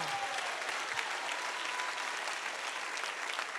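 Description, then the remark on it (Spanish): An audience applauds steadily to the glory of the Lord during an afternoon service, a dense wash of many hands clapping at an even level throughout, with no voices standing out above it. “Déselo fuerte a la gloria del Señor en esa tarde.”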